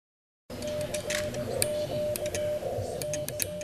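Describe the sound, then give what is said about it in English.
Morse code tapped on a telegraph key by Forsyth Amateur Radio Club members at the Reynolda House Museum of American Art in Winston-Salem, for a Samuel Morse exhibition: sharp, irregular clicks over a steady beeping tone, with a rough background hum and no voices. “Those are the sounds of Morse code here, it's Forsyth Amateur Radio Club members tapping out messages in honor of the exhibit.”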